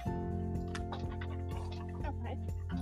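Someone types hard on a keyboard: a series of sharp, irregular clacking keystrokes over a steady low hum in the background.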